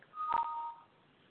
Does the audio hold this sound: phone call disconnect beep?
yes